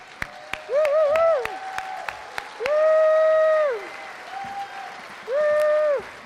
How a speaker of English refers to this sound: So hop to your feet, give my lovely wife a warm round of applause as she comes.